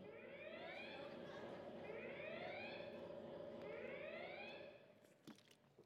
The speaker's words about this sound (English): It was like red lights and sirens, kids, right?